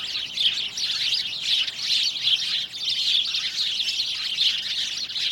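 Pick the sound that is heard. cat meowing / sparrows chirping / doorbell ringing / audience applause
sparrows chirping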